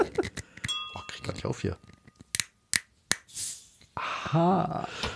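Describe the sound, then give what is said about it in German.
A bottle of Fürst von Metternich sparkling wine being opened: sharp pops and clicks, a brief hiss of escaping fizz, and light glassy clinks, with people talking around it. “Mal gucken, ob da noch Kohlensäure drin ist.”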